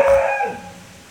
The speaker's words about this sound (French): Bon, on a de la visite euh, du chien du voisin.